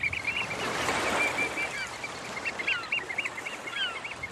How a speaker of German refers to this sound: am Deich sitzen und zuschauen, weil das machen wir nämlich gerade, so ein bisschen windgeschützt und beobachten jetzt einfach mal eine Runde Vögel.